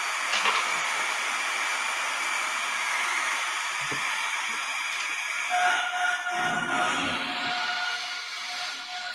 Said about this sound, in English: This sounds creepy, do not you? As I say, without reverb. What? That's like standard spirit box without reverb. Not bad. It sounds like um, some old computer game.